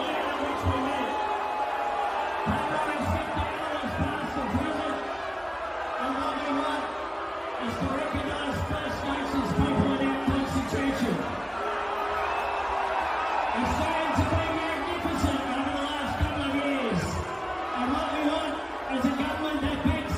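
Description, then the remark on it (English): A large crowd at Bluesfest on Sunday night shouts "Albo, Albo" for Anthony Albanese, a dense, steady roar of many overlapping voices calling out continuously for about twenty seconds with occasional louder whoops rising above the din. “Apparently, they were all shouting "Albo, Albo."”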